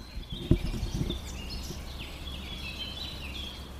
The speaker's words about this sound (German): Ich sitze jetzt gerade hier in Balaga, allerdings nicht in der Innenstadt, sondern relativ weit außen. Könnt ihr die Vögel hören? Ich kann mal ein bisschen die Empfindlichkeit hochstellen. Dann hört ihr das.